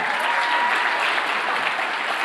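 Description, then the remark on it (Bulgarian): A crowd claps steadily for a couple of seconds, dense and fairly loud applause with no one speaking over it. “нека ръкопляскаме”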